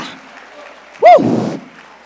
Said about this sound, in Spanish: ¿Habrá alguien aquí que pueda aplaudir a Dios?